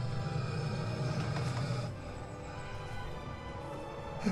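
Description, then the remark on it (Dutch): A low, continuous rumble of the Draak roller coaster fills the background near the Sprookjesbos, steady for a couple of seconds before easing to a quieter drone with faint clatter. “En terwijl het geluid van Draak licht geraakt hier eh, nog op de achtergrond te horen is,”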